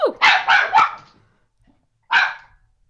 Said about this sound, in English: She's still barking. She's just on the other side of the door now.